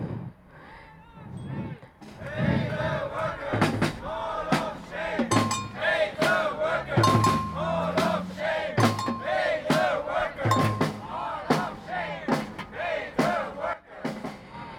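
A large protest crowd chants "Mall of Shame, Pay the Workers" in unison, loud, with sharp rhythmic beats or claps punctuating the chant at a steady pace throughout, at a newly opened shopping centre during Christmas shopping in winter 2014, protesting workers' pay and conditions.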